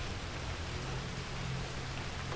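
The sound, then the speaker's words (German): Heavy rain pours down as a steady, dense hiss with a low rumbling undertone, unbroken and even in loudness throughout, with no voices. “Es regnet so sehr, dass die Flüsse über die Ufer treten und den Waldboden bedecken, als wollten sie ein Meer in den Bergen errichten.”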